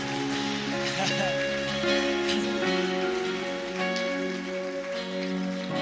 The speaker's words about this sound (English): Come on, let's give those people and our God a round of applause.